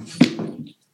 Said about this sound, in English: That's the cat on cue.